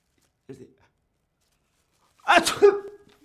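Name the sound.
person sneezing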